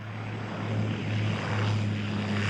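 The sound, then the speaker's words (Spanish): A small propeller plane, flying from an island back to the mainland, drones steadily and fairly loud, its low engine hum and buzzing propeller holding constant throughout, with no voices. “Volvió al continente en avioneta, sentado sobre las maletas, porque consiguió un cupo a último minuto y no había más espacio.”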